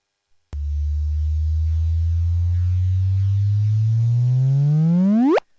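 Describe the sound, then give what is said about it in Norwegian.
A low, steady tonal hum slowly rises in pitch, then sweeps sharply upward into a brief chirp and cuts off, a synthetic sound playing alone for about five seconds: the gravitational-wave signal from two black holes colliding and merging 1.3 billion years ago, detected by LIGO, shifted to a frequency humans can hear. “Denne stusslige lille fisen i et badekar er altså da lyden av det signalet som LIGO oppdaget i september i fjor, som de har endret til en frekvens vi mennesker kan høre.”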